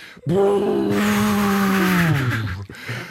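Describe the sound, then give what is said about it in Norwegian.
A voice on Radio Revolt's show Flomlys imitates a jet engine with a sustained, droning whoosh that holds steady for over two seconds, then drops in pitch and fades out, fairly loud. “Alle som har sett et fly siste uka, lag lyden av jetmotor.”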